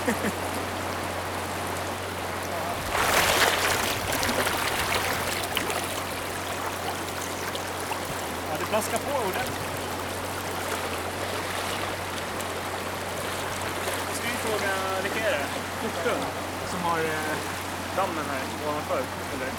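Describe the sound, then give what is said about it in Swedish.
Rushing river rapids roar steadily, with a louder splashing surge early on as someone wades on foot through the rapids; brief voice sounds rise over the water near the end. “det säger ju mer om hur det är att gå i strömmande vatten”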